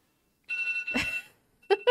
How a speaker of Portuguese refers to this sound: É o alarme do João. É o cara que trabalha com metas.